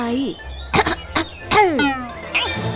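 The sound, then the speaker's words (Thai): A person clears their throat in a few short, rough bursts mixed with voiced grunting sounds, fairly loud, like an attention-seeking "ahem", voicing a little mongoose in a children's story who wants a tailorbird's attention. “ในขณะนั้นพังพรน้อยที่สงสัยตัวหนึ่งได้เดินผ่านมาพังพรน้อยได้มองนกเทเลอร์รวบรวมสิ่งต่างๆ แล้วก็ส่งเสียงกระแอม เพื่อจะเรียกร้องความสนใจ”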